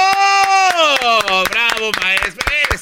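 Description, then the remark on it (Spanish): Sparse, uneven hand claps, a dozen or so light slaps at a loose, unenthusiastic pace, sounding under a loud, drawn-out vocalizing voice. “Te oigo aplaudiendo sin ganas.”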